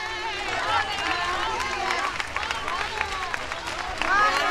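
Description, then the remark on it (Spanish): A large crowd in the Plaza del Altozano in Triana, Seville, applauds steadily as the funeral hearse of Jesús arrives after crossing the bridge, dense clapping in rhythm throughout, mixed with many raised voices calling and shouting over it, swelling slightly louder at the very end. “Vamos a escuchar a, Triana, a la, a la plaza del Altozano.”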